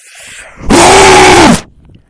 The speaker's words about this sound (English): Oh, but he's got his headphones on, so if I scream really loud, it'll burst his eardrums.